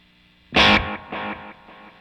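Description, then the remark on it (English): A distorted electric guitar hit rings out, then several quieter tape echo repeats follow in a steady rhythm, each one fading a little more, with no voices. “you can get a slapback and then an echo of that plus your original signal, which is cool and gets it really fat”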